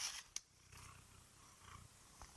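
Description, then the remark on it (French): A cat named Roméo purrs steadily while being petted by its owner, a low rumbling vibration with soft brushing and rustling on top, like a hand stroking fur. No one speaks. “Finalement, je suis juste une maman chat qui est en train de faire des caresses à son petit Roméo qui est en train de ronronner.”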